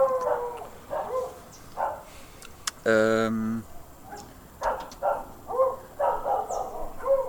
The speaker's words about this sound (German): wenn ihr gerade im Hintergrund Geräusche meine Hunde hört, äh, die haben sich gerade ein bisschen aufgeregt. Ach, übrigens, was wir gar nicht äh, besprochen haben, äh, wir sind hier zwar auch im Garten, aber bei mir im Garten